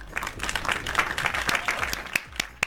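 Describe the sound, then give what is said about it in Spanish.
An audience applauds steadily, a dense patter of many hands clapping at a moderate level, with a few sharper individual claps standing out toward the end, welcoming actress Kesha Ortega as a guest on the show. “invitando a la maravillosa actriz Kesha Ortega, así que un fuerte aplauso para ella.”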